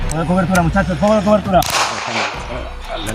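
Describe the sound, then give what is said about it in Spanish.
Voices call out in a rising, chant-like rhythm, then a loud, sharp gunshot bursts in halfway through, followed by a rough, noisy decay: shooting as a truck leaves Madrid heading for Levante at the fall of Madrid, late March 1939. “De Guzmán logró subirse en un camión que dejó Madrid pegando tiro rumbo a Levante.”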